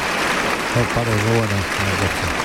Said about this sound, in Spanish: va se desmontera Antonio Chacón. Le recibe esta fuerte ovación del público.